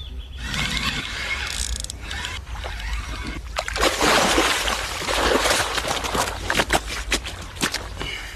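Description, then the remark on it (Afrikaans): At Laurentia Lake near Mildesdrif, north of Johannesburg, South Africa, in spring, an angler's fishing reel clicks and whirs steadily as a carp is wound in, followed by a burst of splashing and sloshing water as it is scooped into a net. No one speaks. “hoe jy kyk hoe 'n hengelaar in vis in katrol en in 'n net skep.”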